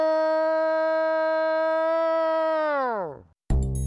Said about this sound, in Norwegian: Other times, you hear the long, sort of mournful howls.